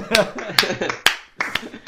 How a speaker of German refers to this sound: Bravo. Applaus Grazie.